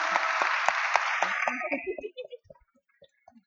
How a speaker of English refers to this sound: Our next guest is Alison Whittaker, and Alison's terrific book Black Work has this year won the Mascara Literary Prize for avant garde poetry. So, round of applause.